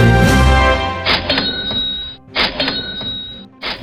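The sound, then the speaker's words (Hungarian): A cash register rings out several times: bright metallic dings and drawer clatter in loud bursts roughly a second apart, with no talking. “Ahogyan az várható volt, decemberben már nem csilingelt annyit a kassa a boltokban, vagyis bezuhant a kiskereskedelmi forgalom, miután az infláció évtizedek óta nem látott magasságban jár.”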